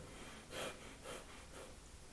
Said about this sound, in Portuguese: Tape a narina direita e entre as sobrancelhas se coloquem esses dedos. E passe a fazer uma respiração abdominal forçada.